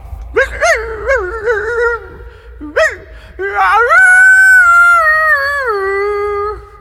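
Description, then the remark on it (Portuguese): A voice imitates a dog howling: a few short, rising yelps, then a long, loud, wavering howl that slowly falls in pitch and holds for several seconds. “Um homem e sua esposa estavam dormindo e de repente o cachorro começa a uivar.”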